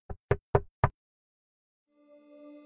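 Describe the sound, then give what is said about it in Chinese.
Four evenly spaced knocks on a door, firm and unhurried, followed by a pause and then a soft, sustained tonal hum that fades in and holds. “外面又响起了一阵缓慢的敲门声。”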